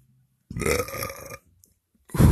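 A long, loud, rumbling burp lasting about a second, after eating ice cream, followed after a short pause by the start of a second deep belch. No one speaks.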